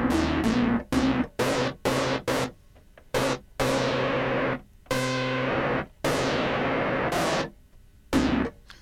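Harsh, buzzy synthesizer tones, with white noise applied to the LFO as a modulation source, stutter in a series of loud, choppy bursts, gritty and noisy, some ending in bright hissing sweeps, with irregular gaps between them and no voices.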